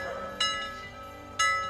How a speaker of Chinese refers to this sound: 石巨人小心翼翼地将钟高挂起来，戴尔呼啸而过，响亮而清澈的钟声传了开来，被风带到了森林之外。